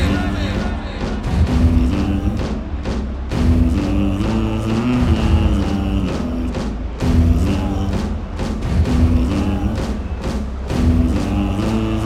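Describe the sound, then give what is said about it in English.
A huge crowd at the Tomorrowland festival hums a low, sustained melody together over a steady, pounding beat, the massed voices loud and continuous throughout with no talking. “Beautiful people in the crowd, I want to know who's ready to do the hum with us tonight?”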